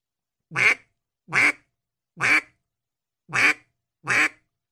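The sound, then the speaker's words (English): A duck call sounds five separate, evenly spaced basic quacks, each short and raspy with a brief pause between, clear with no talking. “how you're supposed to end a basic quack. Let's let's hear let's hear one done correctly.”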